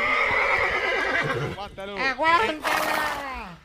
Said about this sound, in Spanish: ¡Se está perdiendo! ¡Se fue! Se escapó el caballo Bolívar.